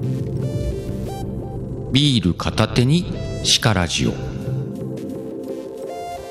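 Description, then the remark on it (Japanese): A short spoken phrase processed with a light echo or reverb from the stand.fm app on an iPhone, the voice trailing slightly, heard over a steady bed of background music and hum. “いけた今ねえっ、ー、と iPhone の本体側の本体側要はとスタイフのアプリの方のエコーをかけてみた。”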